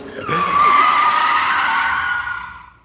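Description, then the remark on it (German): A loud car brake skid with a sustained, high-pitched tire squeal that swells and holds for a couple of seconds before fading out, heard alone with no talking. “Aus Empathie vor dem Podcast Hörenden trete ich hier mal ganz kurz auf die Bremse”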